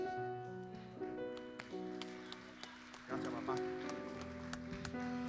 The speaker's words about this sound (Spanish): Si le va a dar ese aplauso, déselo fuerte, eso está flojo. Aleluya. Vamos, aplauda más fuerte, por favor, vamos.